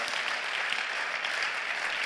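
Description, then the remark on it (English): A large audience at a church conference in Accra claps steadily, a dense, continuous wash of applause that holds at an even level throughout with no voices standing out. “Why don't we clap for Jesus for this amazing conference”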